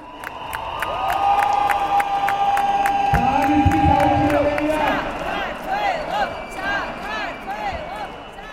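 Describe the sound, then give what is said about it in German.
A large crowd in a park behind the parliament building in Georgia cheers euphorically and without pause, shouting "Sakartvelo" as lawmakers withdraw a disputed law, with long shrill whistle blasts, rising and falling shouted voices, and a steady roar of many people throughout. “Der Jubel will kein Ende nehmen.”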